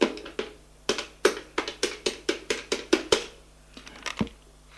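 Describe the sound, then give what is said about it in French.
Someone taps in the phone number of the Ministry of Justice: a quick, steady run of about a dozen crisp button presses, then a few slower, scattered taps before it falls quiet. No one speaks. “Il le trouve, le marque sur un papier, fait le numéro.”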